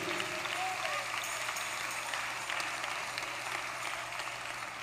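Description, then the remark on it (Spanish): An audience claps together in sustained, dense applause that holds steady and fairly loud for the whole stretch, a continuous crackling wash with a low hum beneath it. “Dale el aplauso”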